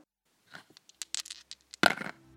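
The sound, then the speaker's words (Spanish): Dice rattle and clatter across a hard surface in a quick, irregular run of small clicks, ending with a louder burst of tumbling before a short low ring fades out. “Ahora lanzamos los dados y terminamos el programa con”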